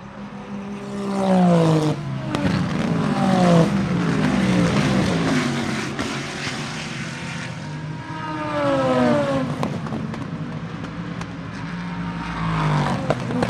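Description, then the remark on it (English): Race cars, including a Corvette battling a BMW in the GT Le Mans class, roar past one after another through the boot section of the track, their loud engine notes climbing and dropping in pitch as they pass and shift gears, with no talking. “Cat or rather Corvette battle with the BMW GT Le Mans.”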